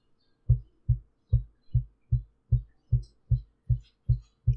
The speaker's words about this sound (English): Just a super rhythmic knocking. And then it slows down. It goes until it has knocked exactly 50 times.